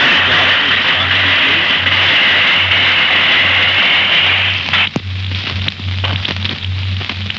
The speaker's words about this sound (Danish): Det var en håndbom, der blev kastet ind i kælderen.